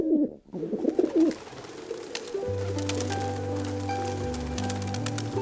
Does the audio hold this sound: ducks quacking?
no